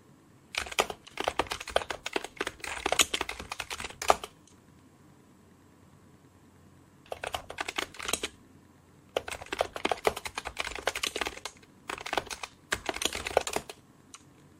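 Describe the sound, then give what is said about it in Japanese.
Rapid keystrokes clatter on a computer keyboard in several bursts of touch typing with the typist's eyes closed, crisp, separated by short pauses of near silence; no one speaks. “今ね、あの、よくこのね、タッチタイピング。”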